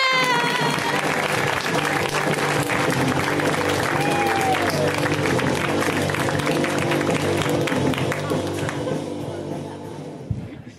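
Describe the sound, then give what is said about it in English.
Loud, sustained audience applause welcoming Chris Fairbanks, a dense wash of many hands clapping with scattered cheers, holding steady before tapering off near the end. “Feel the powerful sparks like lightning taking off between your hands and then release it like Thor into thunderous, thunderous applause to welcome Chris Fairbanks.”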